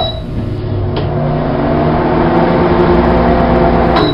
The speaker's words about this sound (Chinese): 所以呢，我把杯子放在微波炉里叮了三十秒，拿出来看了看，嗯，还是不够烫，又放进去叮了三十秒。